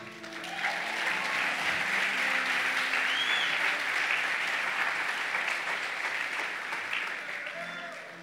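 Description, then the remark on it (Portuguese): A large audience applauds steadily for about eight seconds, a dense, sustained wash of clapping at fairly even loudness, with a few faint voices rising from the crowd underneath. “Se vai aplaudir, aplauda como crente.”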